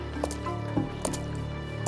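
Wet squelching footsteps splash through muddy puddles in Paris in cool summer air, a woman's feet getting wet as she walks, several soft sloshy impacts spaced irregularly over a couple of seconds, moderately quiet with no talking.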